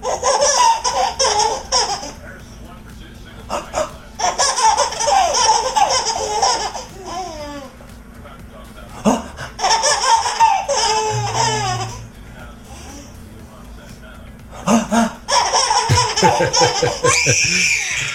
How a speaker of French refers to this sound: Alors à l'époque, on se filmait avec des caméscopes et parfois on enregistrait des situations très drôles. Alors voici des rires et des catastrophes de petits bébés. Alors c'est un pur bonheur.